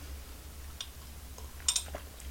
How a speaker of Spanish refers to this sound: Está jovencita, jovencita, así que me voy a dar a su salud un sorbito de café amargo.